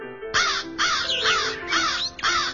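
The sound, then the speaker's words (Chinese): Shrill, harsh calls from a flock of birds of an unknown kind repeat four times in quick succession, each loud, raspy and piercing, with brief gaps between them and no voices. “也不知是一种什么鸟，它发出的声音呀特别尖利。”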